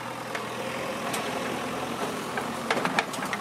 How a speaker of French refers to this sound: En cet après-midi d'été, un tractopelle chasse les mottes de terre et les morceaux de bois qui encombrent encore la chaussée.